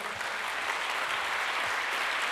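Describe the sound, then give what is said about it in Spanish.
An audience applauds the Lord steadily, a dense, even wash of many hands clapping at once with no clear individual claps standing out, holding a constant level throughout with no voices. “Entonces dele fuerte ese aplauso al Señor.”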